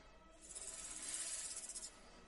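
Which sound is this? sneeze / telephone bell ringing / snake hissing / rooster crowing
snake hissing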